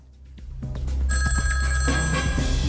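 A telephone rings with an incoming call to a radio programme's phone line, its bright, steady electronic tone sounding clearly over a low background rumble for about two seconds, with no one speaking.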